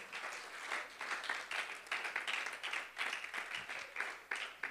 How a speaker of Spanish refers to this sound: ¿Alguien lo puede aplaudir en esta mañana?